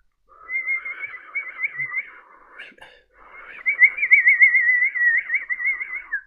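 A snake-charming woman whistling again to direct snakes: a high, wavering whistle in two long phrases; the first is softer, then after a short pause a louder, trilling whistle holds steady for several seconds. No one speaks.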